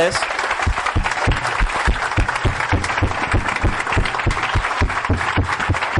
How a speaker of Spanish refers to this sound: Los que vienen por primera vez a un evento de estos. Son muchos. vamos a darles un aplauso bien un fuerte. aplauso.